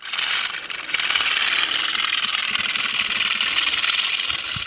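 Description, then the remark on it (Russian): A porcupine, sensing danger, arches its back and bristles, shaking its raised quills in a loud, dry, steady clatter that buzzes on without pause for the whole few seconds, with no voices present. “Они, когда чувствуют опасность, они выгибают спину и ощетиниваются, так что иглы торчат вверх, и они начинают ими трясти. Получается очень громкий дребезжащий звук.”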